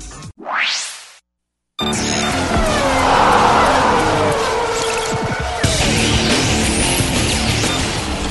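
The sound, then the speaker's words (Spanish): A Formula 1 race car engine screams past in a quick rising whoosh, then after a brief silence loud, dense Formula 1 engines roar continuously, whining up through the gears, with no voices. “El rugir de los motores llega a juego limpio con la Fórmula 1 y más.”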